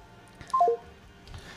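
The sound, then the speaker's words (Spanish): A quick run of three short electronic beeps on a phone line, stepping down in pitch, fairly faint with a low background hum and no one talking; someone was calling the woman on the line while she was talking with the hosts. “Pobre pata, la llamaban mientras hablaba con nosotros y se escuchaba”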